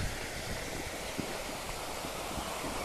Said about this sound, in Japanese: この滝は映画に出てこないね